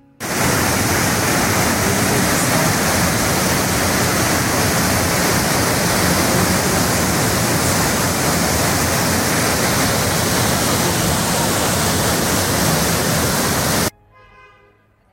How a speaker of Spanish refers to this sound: Hoy te regalo unas imágenes y el sonido de las cataratas. La naturaleza se impone y te invita a admirar la grandeza de este mundo regalada para vos.